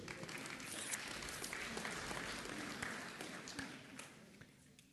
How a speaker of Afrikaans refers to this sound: Dankie baie. Geef hom 'n lekker hande klap toe.